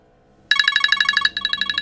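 A paramedics' work mobile phone rings with a rapid, high-pitched electronic trill pulsing in quick bursts, briefly pausing before resuming, loud and clear with no talking, signalling the next call-out.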